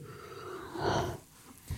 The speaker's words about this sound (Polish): Bo, bo przepraszam, mamy... przepraszam, że ziewam, ale po prostu...